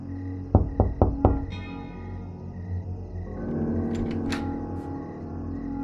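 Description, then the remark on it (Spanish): Four quick, evenly spaced knocks on the door of a friend's house ring out loud, followed by a steady low hum and some fainter clatter and shuffling. “Toqué a su puerta.”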